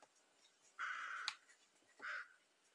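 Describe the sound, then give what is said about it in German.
A bird gives two harsh, raspy calls, a longer one followed by a shorter one after a brief pause, clear with no talking. “Hier ist ein Vogel.”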